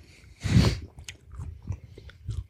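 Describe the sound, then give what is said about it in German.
Someone bites into a small, light-coloured piece of pork belly rind without bristles with one loud crunchy snap, then keeps chewing in a steady rhythm of softer, moist crunches, with no talking. “Aber kannst halt nach einer Weile ein bisschen Aroma freikauen, ne?”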